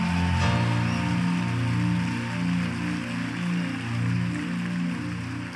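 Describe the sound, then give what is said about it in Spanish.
A crowd at a Christian worship service applauds in a dense, steady wash of clapping that holds for several seconds, with sustained musical tones from an instrument playing underneath. “Dale el mejor aplauso que le hayas dado.”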